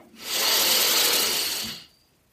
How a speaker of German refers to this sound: Für die Zuhörer zu Hause, ihr könnt mal schnell einatmen und dann langsam ausatmen. Und dann haltet ihr den Atem hier und schaut mal, was euer Herzschlag macht. Ich atme wieder schnell ein.